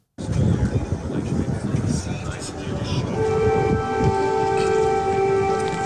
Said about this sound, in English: Joe Biden's landing. He's bringing aid, and it's right in time because air raid sirens are going off. Take a listen to this.